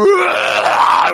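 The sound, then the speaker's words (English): A person voices a loud, rasping roar imitating a T. rex, one sustained growling cry lasting about a second, with no other sounds around it. “that's the noise of a T Rex, comes storming round a corner of course, you'd see it before it came around the corner because it's gigantic.”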